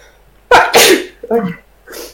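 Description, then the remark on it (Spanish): A sharp sneeze bursts out loudly, followed by a short breathy vocal sound and a softer trailing noise, all within about two seconds. “Salud. Salud.”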